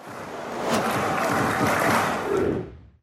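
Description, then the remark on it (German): A huge stadium crowd roars in celebration of a goal, a dense, sustained wall of cheering and shouting that swells, holds loud for a few seconds, then fades away at the end. “So, Freunde, jener Schuss ein Treffer klingt nach Dom, das ist ja sowas wie ein Rummel in Hamburg, der im Moment geöffnet ist, äh, oder klingt ansonsten gerne auch noch äh, für Union Berlin, in diesem Fall aber eben nicht so”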